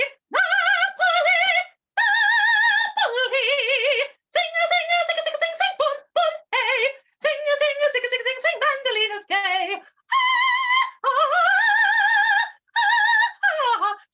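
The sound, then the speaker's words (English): A man sings alone in a high falsetto soprano register a song from Naughty Marietta, sustaining bright notes with vibrato and short breaths between phrases, fairly loud, with no accompaniment. “I do the soprano voice as well.”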